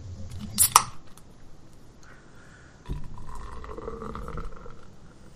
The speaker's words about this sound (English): It sounds good. Most beers sound like that when you're pouring them.